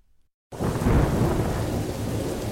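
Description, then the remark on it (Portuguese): A heavy thunderstorm bursts in abruptly after a brief silence, with a deep rumble of thunder over a steady, dense roar of pouring rain, loud, with no voices. “Nossa, amor, essa tempestade horrível e você aí nessa calmaria.”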